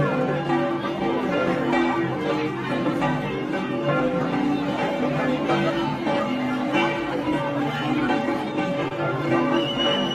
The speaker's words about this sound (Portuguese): Viram acabar até com a celebração para Nossa Senhora Aparecida na casa dela. Xingaram a igreja porque o sino da igreja estava tocando, todos bebendo.